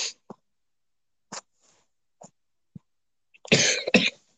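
coughing fit

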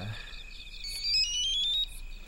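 mobile phone ringing

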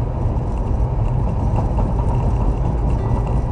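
car engine running

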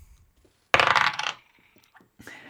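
six-sided die being rolled

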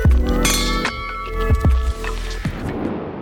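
glasses clinking

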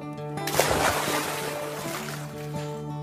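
boat moving on water

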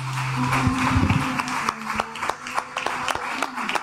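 audience clapping

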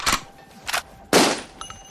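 gunshot sound effect

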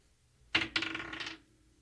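dice being rolled

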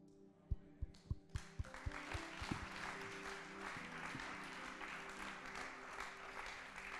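audience applause

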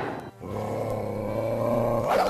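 small dog growling

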